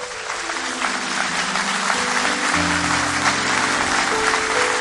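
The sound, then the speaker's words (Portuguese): A crowd at a church worship gathering applauds Jesus steadily and loudly for several seconds, a dense wash of clapping with sustained musical tones humming underneath. “Porque, aplauda, aplauda ele.”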